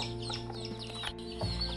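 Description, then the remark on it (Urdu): Hens cluck in short, repeated bursts over a low steady hum, moderately loud, with no voices; a mother hen calling her chicks to grain. “ماں کی آواز سن کر چوزے بھاگے ہوئے آتے اور ماں ان کو دانہ کھانے کا طریقہ سکھاتی باقی مرغیاں”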